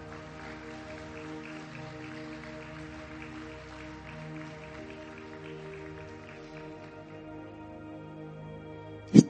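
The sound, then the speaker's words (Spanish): A crowd claps steadily in a sustained round of applause for God over soft sustained music, the clapping gradually thinning out before a sharp, loud knock right at the end. “Denle un fuerte aplauso a Dios fuerte.”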